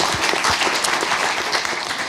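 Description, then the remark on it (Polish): An audience applauds the jury at a literary award ceremony, many hands clapping in a dense, even wash of sound that stays loud and continuous throughout, with no voices standing out. “także proszę o oklaski, być może nas ogląda.”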